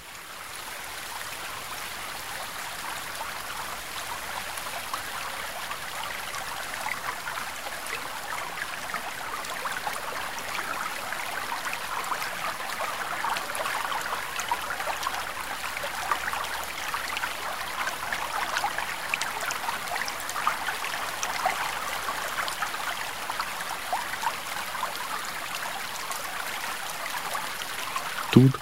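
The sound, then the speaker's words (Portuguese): A stream flows steadily throughout, its continuous babbling and gurgling water holding an even, moderately loud level with no voices or pauses. “Ouvimos os sons da água em seu fluir contínuo.”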